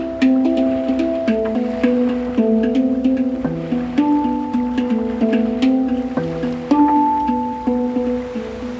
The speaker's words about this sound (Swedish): Det händer att jag somnar in till hängdrummens spel och de mjuka dyningarna.